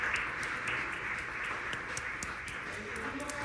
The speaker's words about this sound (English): Hallelujah for them, for their lives. Give an applause to the Lord for the lives of these people.